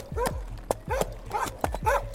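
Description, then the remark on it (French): A dog barks over and over in quick, insistent bursts, the yelps coming close together with hardly a pause between them, moderately loud, near a pastry shop on an autumn afternoon in 1387; the dog is searching for its owner and camps in front of the shop. “Un après-midi d'automne, la marée chaussée est alertée par des aboiements incessants entendus tout près de la pâtisserie.”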